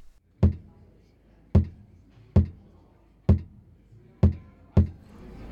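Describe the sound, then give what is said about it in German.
A heartbeat amplified through a sensor that a visitor touches at a health research exhibition aboard a ship: six deep, booming thumps at a steady pace of roughly one per second, each with a short resonant decay. Nobody speaks. “Und da fasst man das irgendwie so an und dann misst das, wie der Herzschlag ist.”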